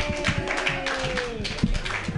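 An audience at a comedy joke workshop claps steadily, a dense patter of overlapping hand claps at moderate loudness, with faint voices and cheers mixed underneath.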